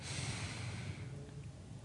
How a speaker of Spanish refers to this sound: Siempre empezamos con la respiración, como siempre y es porque la respiración tiene un, Efecto, al cuerpo. Cuando toma una respiración ahora